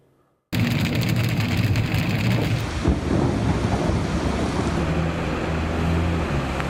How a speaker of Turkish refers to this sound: Önce kara bulutları geldi, sonra bir anda sağanak bastırdı. Bardaktan boşanırcasına yağdı. 15 dakika içinde pek çok noktada su baskını yaşandı. İstanbul güne işte böylesine kuvvetli yağan bir sağanakla başladı.